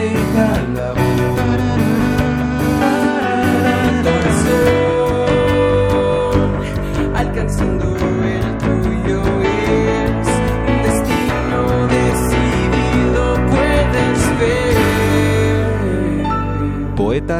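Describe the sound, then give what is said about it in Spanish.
A full, dense song plays continuously at steady loudness, with sustained layered instrumentation and a sung vocal line carried over a strong low end, prominent with no talking over it. “Entonces la cápsula no tiene poesía, pero sí fragmentos de la letra de la canción. Muy bien, pues vamos a escuchar ese trabajo.”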